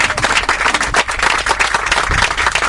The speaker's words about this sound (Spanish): les pido un fuerte aplauso